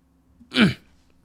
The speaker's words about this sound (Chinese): 我清了清嗓子。